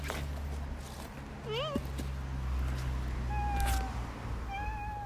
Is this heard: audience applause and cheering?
no